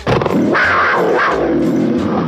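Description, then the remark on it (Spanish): A loud puma roar rises into a rough, growling snarl, sustained for a couple of seconds with no other sounds. “Y un rugido del Pumas.”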